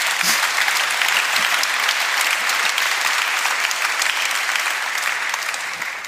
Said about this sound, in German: Applaus